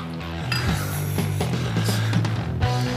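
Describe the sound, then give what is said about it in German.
Glasses clink together in a toast, a few bright ringing taps against a steady low hum of room noise. “Prost. Zum Wohl.”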